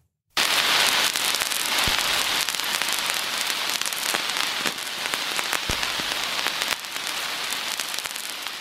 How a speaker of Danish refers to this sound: Så det lyder dejligt. det, det skal lyde som, det er en knitrende vinyl, øh,